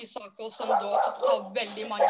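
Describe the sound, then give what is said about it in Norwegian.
A dog barks a few times while someone keeps talking over it, the barks blending into the steady speech. “Det var hunden”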